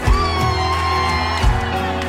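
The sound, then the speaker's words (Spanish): A crowd of young people shouts and cheers in one sustained roar, mixed with steady music and a couple of deep drum thumps. The shout comes from the youth of a church during worship, called out as the shout of the young people of Jesus. “A ver el grito de los jóvenes de Jesús.”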